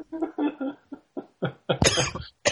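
A fit of coughing: a rapid series of harsh coughs, several short bursts followed by a longer, louder rasping cough near the end, with no speech.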